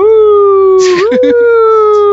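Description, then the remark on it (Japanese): A man's voice imitates a police car siren with one long, steady wailing hum that dips and rises slightly midway. A brief breathy burst and some faint background voices break in near the middle. “パトカーですから、ね、バイクじゃねえからね。”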